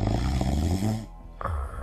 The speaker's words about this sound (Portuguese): Roncava muito.